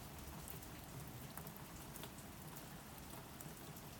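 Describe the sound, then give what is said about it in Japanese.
Steady rain falls continuously, a soft even hiss dotted with small patters of drops striking a surface, with no voices, holding at a constant, fairly quiet level throughout. “雨の音が聞こえる”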